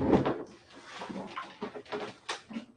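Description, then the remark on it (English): A door is pushed shut with a solid thump at the start, followed by a string of softer knocks, clicks and shuffling movement. “Let me shut my door.”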